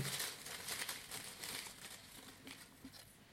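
Soft crinkling and rustling of a small slip of paper being drawn and unfolded to pick a question, a steady run of light crackles with no voices over it.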